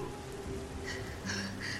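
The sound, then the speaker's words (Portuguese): Steady rain falls with a soft, continuous hiss, fairly quiet and even throughout, with a few faint brighter tones rising briefly over it near the end. “Afinal de contas, o movimento estava baixo devido a tanta chuva.”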